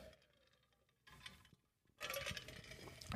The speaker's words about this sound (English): get a drink of the beverage there. You guys can hear the ice cubes floating around.